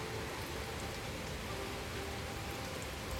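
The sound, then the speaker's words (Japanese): Heavy rain pours down steadily on a very cold May afternoon, a dense, constant hiss of drops spattering on surfaces, with no voices and no breaks in the downpour. “本当に今日すっごい寒いですよね雨もめちゃくちゃ降ってるし”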